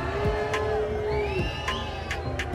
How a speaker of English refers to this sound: Boris Johnson was booed this week on his trip to Northern Ireland.